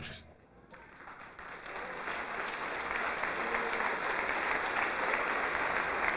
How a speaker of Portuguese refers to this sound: Isso, vamos aplaudir muito, vamos aplaudir aquele que nos amou e se entregou inteiramente por nós, em sacrifício perfeito a Deus, em holocausto a Deus entregou-se a si mesmo para aniquilar as obras do diabo